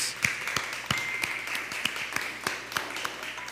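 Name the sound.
applause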